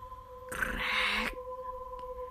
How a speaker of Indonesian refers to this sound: Belum sempat aku menutup mata, terdengar suara pintu kamarku seperti ada yang membukanya.